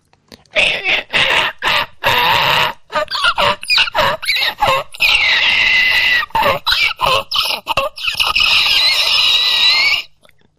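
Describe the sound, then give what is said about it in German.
A voice imitates an electric violin with bursts of squealing, reedy, high-pitched tones that slide up and down, loud and choppy at first, then a sustained wavering whine before stopping. “Es gibt elektronische Geigen.”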